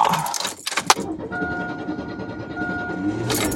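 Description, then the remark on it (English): Keys jangle brightly in the first second as they are taken off a Pepsi hat, then a steady low engine hum with a faint high tone sustained underneath, and a final brief rattle at the end. “I get my keys off my hat.”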